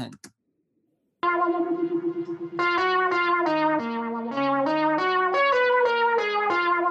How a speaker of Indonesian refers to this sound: Cuman ini untuk scene berapa 8 bar ini, ini gue pakai keyboard analog yang gue todong pakai mic tiga biji pakai ampli macam-macam hanya untuk lead kayak gitu doang gitu